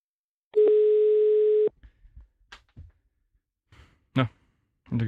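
A steady telephone tone sounds for about a second as a call is placed again, followed by faint clicks and shuffling, then short bursts of muffled voices.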